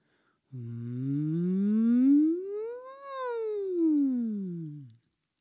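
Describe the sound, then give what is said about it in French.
A single voice makes a siren-like glide, its pitch sweeping smoothly upward for about two and a half seconds and then sliding back down, steady and fairly loud, with no other sounds. “Par exemple, pour faire varier la hauteur, on peut faire des sirènes, qu'on appelle aussi des fusées.”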